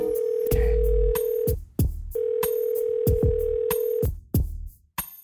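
An outgoing phone call's ringback tone to a man's new phone sounds twice, each a steady buzzing tone lasting about two seconds with a short pause between, with faint clicks on the line and no talking.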